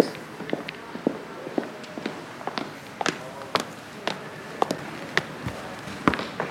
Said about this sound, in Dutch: We lopen nu de OBA in.